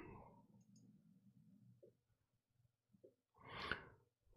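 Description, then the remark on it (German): A few soft, irregularly spaced mouse clicks as someone clicks through an online form on a Swiss government website, followed near the end by a louder, breathy exhale. No one speaks. “Dann klicken wir nur ganz kurz durch.”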